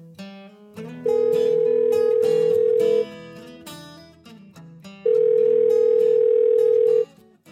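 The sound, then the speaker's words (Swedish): A telephone ringback tone sounds twice as a phone call is placed, each a steady two-second burst with a pause between, loud and clear over a soft bed of background music. “Men nu slår vi en pling till”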